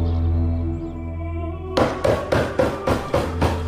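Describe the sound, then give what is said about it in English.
A sustained low musical drone gives way to loud, heavy, forceful pounding on a door, about six evenly spaced thuds in a steady rhythm: the Queen demanding entrance at the Lord Bishop's door. “Who asked for entrance in this manner?”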